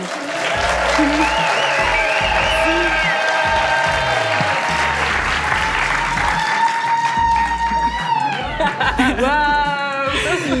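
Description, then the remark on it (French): An audience at the Alhambra, an art-house cinema in the 16th arrondissement of Marseille, claps and cheers loudly and continuously for about ten seconds, with shrill whistles and excited shouts rising above the dense, steady applause. “Vous pouvez faire un peu de bruit”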